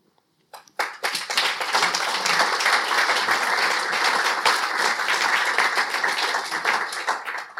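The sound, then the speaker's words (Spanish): An audience at a book presentation breaks into sustained applause, many hands clapping in a dense, steady roar that starts abruptly and holds strong for several seconds with no talking over it. “Bueno, pues parece que este aplauso rubrica más o menos lo que hemos estado eh, diciendo aquí esta tarde.”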